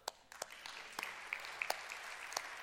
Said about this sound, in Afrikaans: Slow clap.